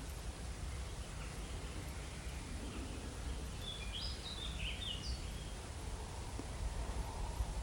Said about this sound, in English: I was expecting perhaps a bit more bird call, if I'm honest heading into the evening. But it's not disappointing for it. If anything, it feels very peaceful.